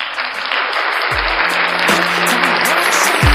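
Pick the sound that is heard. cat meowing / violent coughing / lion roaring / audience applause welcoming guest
audience applause welcoming guest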